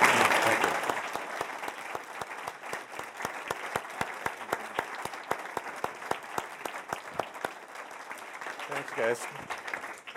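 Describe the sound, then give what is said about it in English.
A room full of people claps steadily for several seconds, the applause dense at first and then thinning into scattered, sharper individual claps as it tapers off. “let's hear it for the …”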